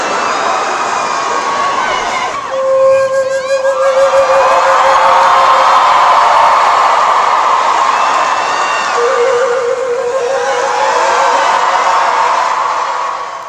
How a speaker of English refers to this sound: And uh, she had his 200 year old flute, and this is what she did with it. It's crystal. It's like playing out of a, a, a wine glass, bitch, so be patient.